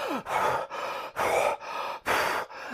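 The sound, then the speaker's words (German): A voice imitates the heavy, rapid panting of a woman out of breath as if she had just run a marathon, about five or six quick breaths in an even rhythm, fairly loud. “als hätte sie gerade irgendwie einen Marathon gelaufen?”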